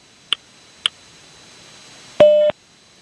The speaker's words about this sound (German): Beim nächsten Ton ist es 20 Uhr 20 und 10 Sekunden.